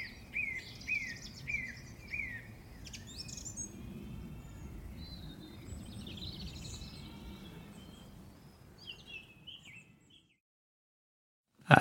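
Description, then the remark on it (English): Outdoor birdsong of a song thrush in the Brecon Beacons in early April: a repeated run of bright, whistled phrases near the start, then varied chirps and trills over a low rumble of ambience, fading to silence near the end. “And with the gentle lullaby of a song thrush, I wandered back to my car, and that was a lovely little insight into spring up here in the Brecon Beacons.”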